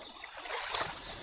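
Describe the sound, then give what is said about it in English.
Soft, steady flowing water, a gentle trickling wash heard at a low level, with one brief splashy tick partway through and no voices. “I can just hear the birds. I can hear the water.”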